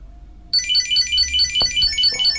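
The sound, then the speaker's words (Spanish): A Bluetooth item tracker, set off by a play-sound command to locate the object, starts chirping abruptly, a rapid, repeating electronic warble of bright high-pitched tones, loud, continuing steadily with a faint low hum underneath and a couple of soft clicks. “Reproducir sonido. Localizar objeto. Reproducir sonido. Conectando.”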